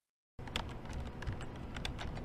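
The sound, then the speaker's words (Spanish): Rapid, steady typing by a person programming on a computer keyboard with a braille display, with many small overlapping key clicks and taps filling the whole stretch after a brief silent start. “escribiendo en el teclado con línea braille.”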